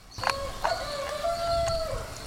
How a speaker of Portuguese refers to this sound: No meio da destruição e da lama, o silêncio da madrugada é cortado pelo galo cantando.